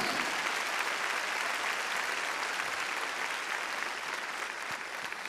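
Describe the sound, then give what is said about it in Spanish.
An audience applauds the Lord during a church service, a dense wash of many hands clapping at an even, sustained loudness for several seconds with no break and no voices standing out. “Déselo fuerte al Señor, hermano.”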